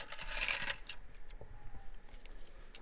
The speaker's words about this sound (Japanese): 両替両替してコインの音で